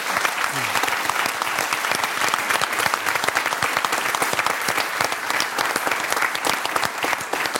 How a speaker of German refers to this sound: Das T-Shirt, dein Applaus.